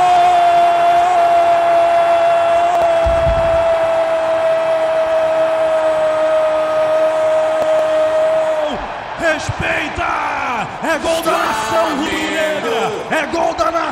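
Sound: stadium crowd roaring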